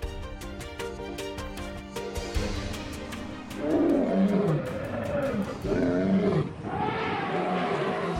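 Deep, growling lion roars rise in repeated bursts over a steady savannah backdrop, loud, with a faint tonal musical bed underneath at the start.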